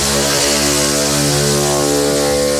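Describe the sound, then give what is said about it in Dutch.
The loud, buzzing engine of a slow moped drones, its rough whine wavering and dipping in pitch as it passes, with no voices over it. “Hebben jullie diezelfde hele langzame eh, eh, brommer die ontzettend veel herrie maakt?”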